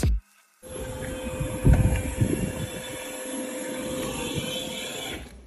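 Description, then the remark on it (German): A parked Toyota Mirai hydrogen fuel cell car venting water vapor: a steady, fairly loud whooshing hiss with a thin mechanical whine runs for several seconds after a brief pause, with no one talking. “kommt da Wasserdampf raus aus dem Mirai”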